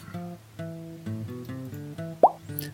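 A quiz buzzer, pressed by a player in a buzzer-question round, goes off with one short, bright pop near the end, standing out above a soft, steady musical bed of sustained tones.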